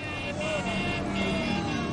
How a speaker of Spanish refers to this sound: La gente les saluda en la carretera. Un coche con banderas pasa junto al autobús.